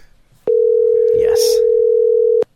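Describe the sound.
A steady, loud telephone dial tone of an outgoing call holds one unbroken pitch for about two seconds, starting and stopping abruptly, with a brief murmur of speech faintly underneath midway.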